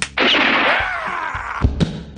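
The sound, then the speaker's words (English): Bubble wrap popping loudly, with a sustained crackling burst followed by two sharp, gunshot-like cracks in quick succession, popped to imitate gunshots, and no one speaking. “Yeah, and that's exactly why I've got the uh, the bubble wrap.”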